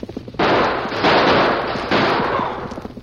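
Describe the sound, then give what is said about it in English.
A loud barrage of gunshots as Jake and Big Bill open fire when the Lone Ranger and Tonto ride out of hiding onto the trail: harsh, overlapping cracks that blur into a sustained crackling roar, surging anew three times over a few seconds, with no voices. “As the Lone Ranger and Tonto rode out of hiding onto the trail, Jake and Big Bill opened fire, then started down the trail at a fast pace.”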